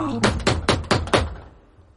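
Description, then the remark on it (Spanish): Five sharp knocks rap out in a quick, slightly uneven rhythm, imitating someone knocking on a door, then fade to quiet. “Y de repente, pum, no y cuarto de la noche se escucha la puerta.”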